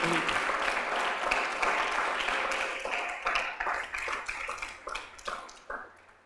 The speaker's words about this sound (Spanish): Bueno, le demos un aplauso al Señor.